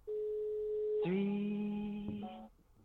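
A telephone ringing tone while calling: a steady electronic hum that switches partway through to a lower, buzzier tone, lasting about two and a half seconds. Clear and close, with no voices.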